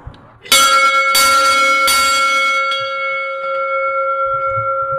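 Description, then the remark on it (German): A large original bell hanging in a bell frame, one of the largest they have, rings loudly, struck three or four times in quick succession, its deep, sustained tone lingering and slowly fading, with faint low rumbling at the end. “das ist jetzt ein Glockenstuhl, das ist eine Leihgabe vom Unterrheiner Erich”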